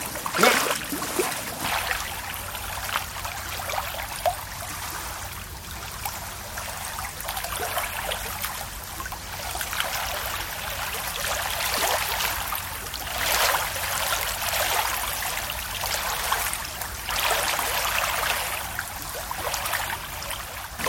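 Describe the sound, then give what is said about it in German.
A small stream trickles and babbles steadily, with bright splashing water sounds continuing throughout without pause. “Aber das Wasser hört man jetzt, hä?”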